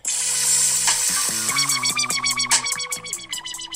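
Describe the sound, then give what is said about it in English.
A loud, heavily processed hip-hop beat with a slow, sensual strip-club feel: stepping synth bass notes under hissing, sizzling hi-hats and bright effected textures, no vocals. “Oh, this beat is so familiar. Yeah, I I, I, I really want to get to the hook, but This is definitely pole music right here.”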